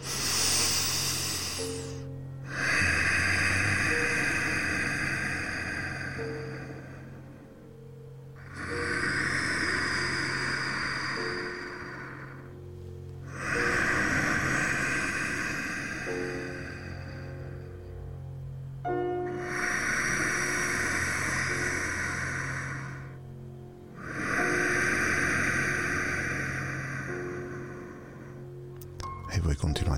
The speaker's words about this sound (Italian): la mia bella spina dorsale dritta perché ho scelto il, la seduta corretta e incomincio a fare una respirazione di questo tipo che adesso faremo insieme